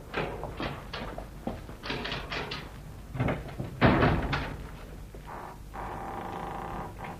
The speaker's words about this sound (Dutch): Ja, Laten we nou eerst de deur van de bunker openmaken.